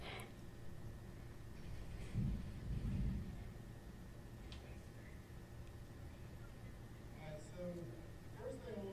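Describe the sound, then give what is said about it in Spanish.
A roll of thunder rumbles low for a couple of seconds amid steady storm noise, with faint voices murmuring near the end. “Están aquí en, uh, en uh, la tormenta.”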